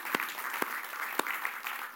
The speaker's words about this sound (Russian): Давайте просто дадим аплодисментам тем людям, которые создают этот уют.